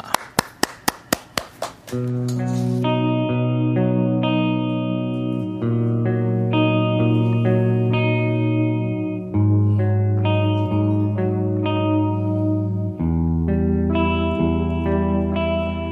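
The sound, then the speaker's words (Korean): A live rock instrumental performed in a studio opens with several sharp, evenly spaced hits, then swells into loud, sustained distorted guitar chords with effects-laden tone, shifting chords every few seconds, no voices. “와, 두 분 격하게 환영하면서 우선 락커의 노래로 이 시간 문을 열 텐데요.”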